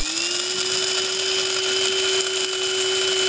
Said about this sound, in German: mein Vater jetzt seit ungefähr einem Jahr seinen Kaffee selber malt und das Ganze per Hand in einer alten Kaffeemühle. Und das finde ich total cool. Warte mal, ist das so, also so. Ist, das, ist das so eine Kaffeemühle?